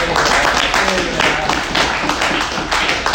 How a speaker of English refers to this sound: I know you're like, why are you clapping? You don't know what we're talking about.